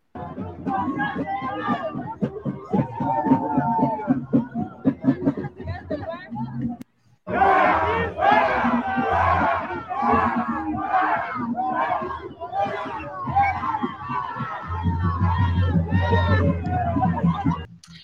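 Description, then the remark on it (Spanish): A large crowd waiting outside for a woman shouts and chants together, loud and sustained, with a brief pause before the yelling surges back even stronger. “hubieran estado afuera gritándole a Alejandra Almoral”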